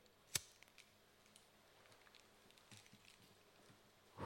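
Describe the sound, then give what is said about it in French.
A lighter being struck to light three candles: a sharp click, then quiet small ticks, and finally a rougher rasping burst as it sparks again. No one speaks. “Alors, on va allumer les trois bougies. Oui. Qu'est-ce que vous en pensez Tu t'en occupes On entend le briquet.”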